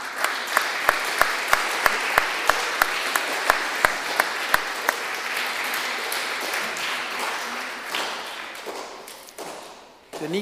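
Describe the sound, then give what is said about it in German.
A crowd at a church service applauds steadily for several seconds for young people receiving certificates, with a few sharp rhythmic claps standing out, before the clapping thins and fades as voices begin. “Ein Applaus für die Jugendlichen, die hier so engagiert dabei sind.”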